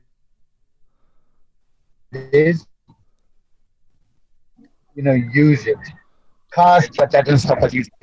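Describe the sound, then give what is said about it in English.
A man's voice comes through in choppy fragments, cutting out abruptly into dead silence for a couple of seconds before snapping back mid-sentence, like a connection breaking up. “just repeat what that last thing you said about cars, because like you, you're sort of dropping in and out”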